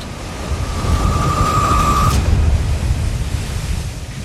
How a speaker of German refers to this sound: Und dann umschließt die Welle das komplette Schiff. Einen unheimlichen Moment lang herrscht nahezu Stille, als die Welle das kleine Boot hochhebt und es dann mit voller Wucht trifft.